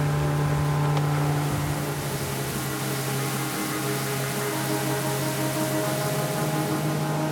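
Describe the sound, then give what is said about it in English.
A small motorboat's engine drones steadily, its low hum constant throughout, with wind and rushing water hissing over the top as the boat heads south out into the Sea of Cortez. “It's only now heading south in this small boat out into the Sea of Cortez that all the stresses and strains, all the planning I realise is behind us now.”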